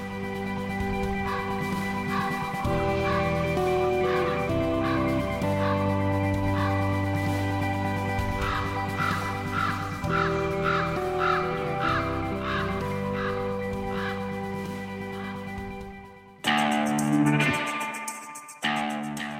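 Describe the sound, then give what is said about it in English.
A raven gives a long run of harsh, croaking calls in a steady rhythm, loud, over a sustained low musical drone, with a brief different burst of sound near the end. “I'm not sure how the ravens would feel about that.”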